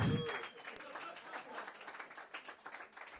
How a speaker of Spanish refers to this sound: Gracias, de verdad. Un aplauso fuerte a este señor.